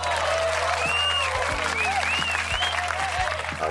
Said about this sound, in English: Round of applause for making it through this week.